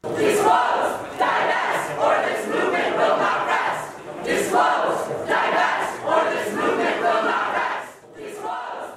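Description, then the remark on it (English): A large crowd of student protesters from a prison divestment campaign at Harvard chants loudly and rhythmically in unison, voices rising and falling in repeated bursts as they shout slogans together. “That's the Harvard Prison Divestment Campaign. It might sound like the other protests, but the goal is different change society, not the campus.”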